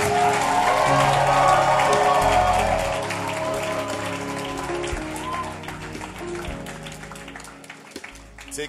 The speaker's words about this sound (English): Let me hear your loudest amen. Amen. You are blessed. Give the Lord a mighty hand clap.